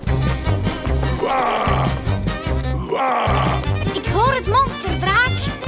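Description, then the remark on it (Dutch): A steady, rumbling roar in the distance with pulsing low growls and rising, groaning swells, loud and continuous rather than faint, with no clear talking over it. “hoor je het gebrul in de verte?”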